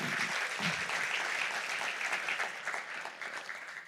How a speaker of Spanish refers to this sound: Y lo otro, bueno, levántale, dar un fuerte aplauso al Señor.